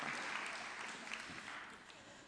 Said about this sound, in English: So, should we have a round of applause for our builders?